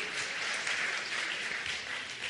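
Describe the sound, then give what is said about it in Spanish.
Steady audience applause for a speaker at a talk, a dense wash of many hands clapping at once, sustained and fairly loud throughout with no talking. “Entonces, un aplauso para él.”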